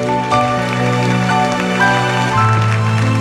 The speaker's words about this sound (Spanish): aleluya Dile otro aplauso a mi madre Espíritu Santo